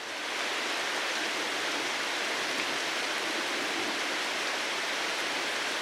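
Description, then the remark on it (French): A steady, dense hiss of rain falling, spread evenly across the whole stretch with no breaks or distinct drops, constant in level. No voices are heard. “On peut certes aussi se protéger de la pluie en portant une capuche, mais alors ce sont les oreilles qui sont mouchées et à nouveau les repères sonores qui sont perturbés.”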